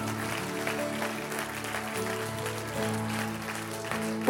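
An audience at a worship service applauds steadily for about four seconds, giving the worship leader a big round of applause: a dense, even wash of clapping over sustained keyboard chords that hum underneath.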